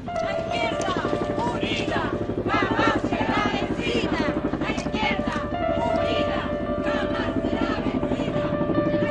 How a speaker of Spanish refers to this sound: El helicóptero Puma aterriza en La Serena.